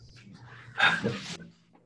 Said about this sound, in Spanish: Cabrón, yo la tranquila y el perro viene y se trepa, papi, el cabrón, de, de, del, del audífono todo descabronado.